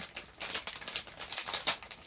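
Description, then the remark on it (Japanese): Crunching of someone chewing crisp chips, a quick irregular run of sharp, bright crackles over about two seconds, with no talking. “本当に食べるのどうしようかなと思ったんですよあの咀嚼音ってあの好きな人嫌いな人いるじゃないですかだけど一応もぐもぐあの意識して食べたつもりではいるんですけど”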